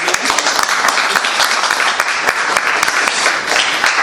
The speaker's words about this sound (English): Um, thank you very much. We can applaud